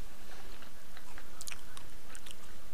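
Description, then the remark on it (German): Crisp, crunchy bites and wet chewing of an apple, a quick irregular series of sharp crackling snaps over a steady hiss, with no talking. “Dieser Apfel schmeckt ja. äh, sehr gut.”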